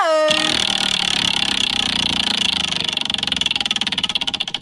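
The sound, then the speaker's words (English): A spinning prize wheel, spun to pick a place, clatters with a rapid, continuous stream of clicks that gradually slow and become more distinct toward the end, landing on Waterloo, preceded by a brief ringing tone at the start. “going to help me spin the wheel.”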